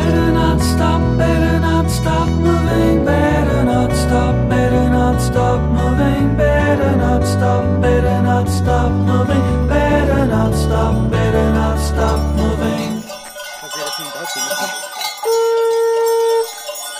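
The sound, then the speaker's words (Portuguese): Loud, dense clanging of many cowbells rings steadily with rhythmic strikes as runners are greeted at the first refreshment station of a road marathon, then thins out near the end as a sustained, horn-like conch shell tone sounds on its own. “Este é o som de badalos e de búzios a receber os corredores no primeiro abastecimento da prova.”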